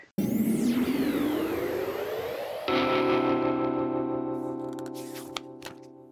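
Electronic music with a rising, sweeping synth tone, then a sustained droning chord with layered tones and effects, gradually fading out with a few clicks near the end; no voices.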